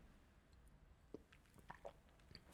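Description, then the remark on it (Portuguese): Someone takes a quiet sip of water: soft, wet mouth clicks and a small gulp, ending with a brief sharper click, with no talking. “Só dá um golinho de água.”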